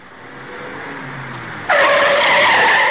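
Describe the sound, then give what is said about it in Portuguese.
A car speeding at high speed on an avenue: its engine rises, then at about 1.7 seconds tires break into a loud, sustained high-pitched squeal of skidding that continues to the end, intense, with no voices. “Um carro em alta velocidade acolhe em cheio.”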